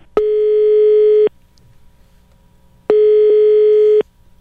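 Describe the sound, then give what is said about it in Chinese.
Two steady, buzzy electronic rings on a phone line, each lasting about a second with a longer pause between, the ringback heard while a call goes to a random resident in Sweden. No talking. “所以电话呢，于是就我们怀着这个紧张的心情，因为大家都很紧张嘛。”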